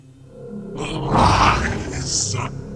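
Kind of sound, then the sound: sound effect, monster roaring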